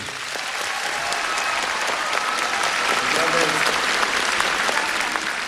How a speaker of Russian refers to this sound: Слышишь, какие аплодисменты?